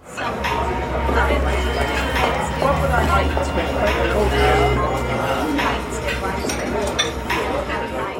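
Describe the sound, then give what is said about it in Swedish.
A busy restaurant with guests: a constant wash of crowd chatter with clinking dishes and cutlery, and background music humming low underneath, loud throughout. “Eh, utan det är summan av allt det här och det låter så här.”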